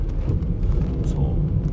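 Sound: car interior driving noise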